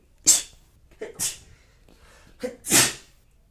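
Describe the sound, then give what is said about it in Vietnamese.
A person sneezes three times in a row, each sharp burst preceded by a quick inhale, with short pauses between. The sneezes sound slightly off-mic, as the microphone had been moved away beforehand, and no one speaks. “nhưng mà sorry mình sắp hắt xì để xíu”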